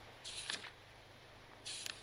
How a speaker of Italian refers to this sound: Cercò per un po' una pagina libera, rompendo il silenzio con il frusciare delle piccole pagine beige.